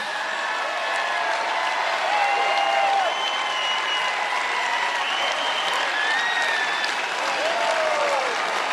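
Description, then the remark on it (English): A large crowd applauds and cheers steadily for the whole stretch, a dense wash of clapping with whistles and rising shouts streaking over the top, holding at an even, loud level throughout. “Yeah, look at that crowd. Look how big that crowd is.”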